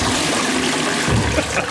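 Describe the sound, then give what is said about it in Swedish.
Liquid pours steadily into a glass, a continuous splashing, fizzy trickle that lasts a couple of seconds and swells slightly near the end, with no talking. “Så då häller vi upp här lite.”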